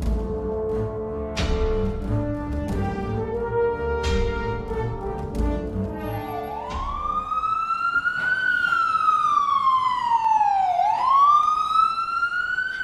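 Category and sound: vehicle, ambulance siren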